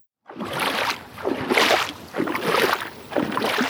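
Water sloshes and splashes in broad, rhythmic surges as people wade out through shallow water toward a small boat with heavy strides, each push about a second apart, fairly loud with no voices.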